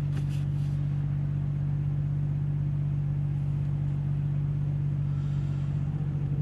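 A car engine rumbles steadily while the car is driven through city neighborhood streets, a low, continuous drone with a constant hum and faint road noise, no voices present.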